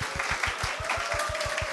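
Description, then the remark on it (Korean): An audience at a lecture applauds to welcome historian Lee Deok-eul (이덕을), in a steady, dense wash of clapping that holds evenly throughout, with a regular low thumping pulse underneath. No one speaks. “이 시대 역사학자 이덕을 선생님을 커다란 박수로 모시겠습니다.”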